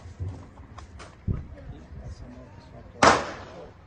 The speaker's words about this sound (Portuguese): Esse tiro não foi ele que deu, esse tiro foi alguém do lado que tinha outras pessoas atirando, parece que saiu um tiro sem querer. Não é dele, é de outra pessoa.